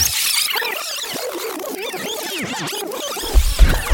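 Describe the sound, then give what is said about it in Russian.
A DJ rewind effect: rapid, warbling pitch sweeps scrub back and forth through the music for several seconds, ending with a few heavy bass thumps as the beat drops back in. “Rewind selector. Bring that beat back.”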